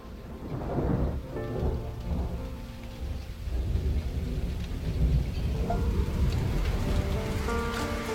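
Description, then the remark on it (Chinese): Steady rainfall hisses throughout while low thunder rumbles and rolls beneath it, the storm holding a fairly even, moderately loud level for the whole stretch, with faint sustained tones in the background. “今天下雨了”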